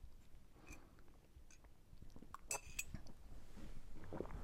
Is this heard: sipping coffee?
yes